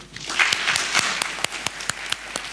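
An audience applauds, a dense wash of clapping with a few sharper individual claps standing out, moderately loud and steady throughout with no voices.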